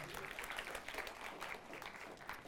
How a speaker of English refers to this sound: Yeah, yeah give him a round of applause. He's thinking I didn't join for this.